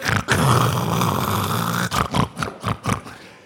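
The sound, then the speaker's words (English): A voice imitates the snorting of a man dozing on a couch, covered with a newspaper: one long, rough, rasping snore, then four short, rhythmic snorting bursts. Loud, with no speech alongside. “He'd be covered in the paper, snorting.”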